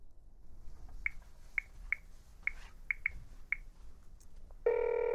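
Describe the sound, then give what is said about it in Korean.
Seven short, high beeps of a phone number being dialed to call a man from his business card, unevenly spaced, then a steady buzzing ring tone starts at the very end. No one speaks. “이 남자한테 한번 전화해봐.”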